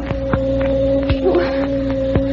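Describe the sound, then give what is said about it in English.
A steady electric buzzing hum drones on without a break, a tight and somewhat insect-like tone that stays even in loudness, with a few faint clicks and taps behind it. “What's that noise? It sounds like a, a hornet.”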